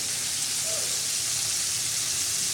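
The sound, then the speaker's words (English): Mama's fried chicken sizzling in a pan in the kitchen, a steady, dense crackling hiss that holds level for the whole stretch, with faint low rumble underneath and no voices. “Mama's fried chicken.”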